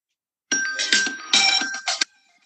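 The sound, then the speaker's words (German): A short, bright electronic jingle of a few chiming tones with sustained notes plays clearly for about a second and a half, then stops abruptly, leaving silence. “Und hast du noch einen Jingle für uns zum Hören?”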